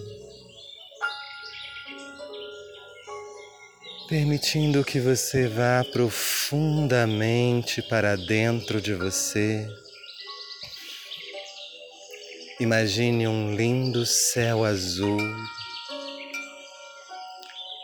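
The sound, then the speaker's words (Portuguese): Birds chirp and sing steadily in the background throughout, a soft continuous chorus of tweets, while a calm voice speaks slowly over it in two stretches. “e à medida que você ouve os pássaros cantar, imagine o cheiro da grama molhada e olhando para o alto, para esse lindo céu azul.”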